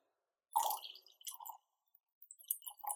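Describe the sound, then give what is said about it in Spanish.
Wine glugs out of a freshly opened bottle into a glass in a few short, gurgling bursts separated by brief pauses, fairly quiet, with no talking. “Cloc, cloc, cloc. Cloc, cloc, cloc. ¿Le sigo más, Por favor.”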